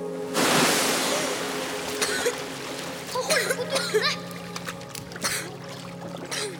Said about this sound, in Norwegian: Læreren kaster seg ut i vannet. Og Symi raskt bort til overflata, der Sander traff vannet.